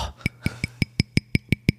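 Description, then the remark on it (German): Nine quick, evenly spaced taps on a German-made glass protective filter for a camera. Each tap is a crisp click with a faint high ringing tone, in a steady rhythm with no talking. “Das ist, da Glas? Glas? Das, ist, das ist einer dieser sogenannten Schutzfilter.”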